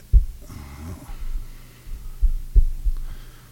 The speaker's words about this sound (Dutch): Kijk, je hebt dus een kick. Hoor je hem? Boom, boom. Kijk, ik begin dan meestal met eh, gewoon een kickje.